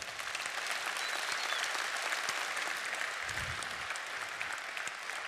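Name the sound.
audience applause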